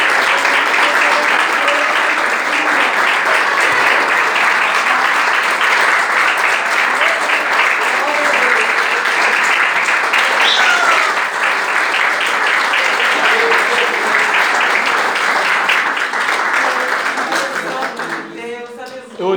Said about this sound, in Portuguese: Você pode aplaudir a Jesus? Amém.